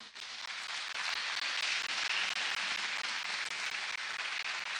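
An audience breaks into steady applause, a dense wash of many hands clapping at an even level throughout with no voices standing out.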